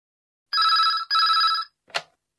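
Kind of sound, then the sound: signal or alarm, telephone ringing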